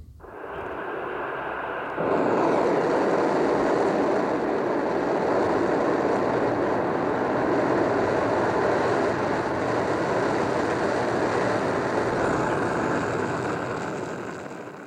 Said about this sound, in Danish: Det her det er lyden af den russiske, eller det russiske rumfartøj Soyuz TMA 18M, der den 4. september 2015, sådan cirka 9.40 dansk øh, tid, satte kurs mod den internationale rumstation.